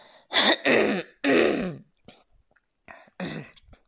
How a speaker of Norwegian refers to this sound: Jeg begynner oppi hårfestet og må kremte litt. Beklager det.